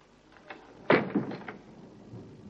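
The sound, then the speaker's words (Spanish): A door swings shut with a solid thump as a woman closes it after stepping in, followed by a couple of softer knocks and rattles as it settles, with a few faint clicks beforehand and no voices. “Eh, pasa entonces y cierra la puerta. Ella lo hace.”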